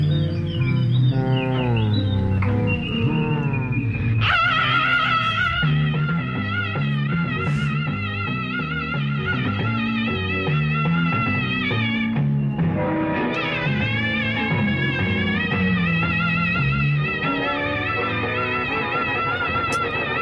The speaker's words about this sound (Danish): Jeg skal lige finde ud af, hvem der egentlig skriger på det her nummer. Jeg synes, det er svært at høre.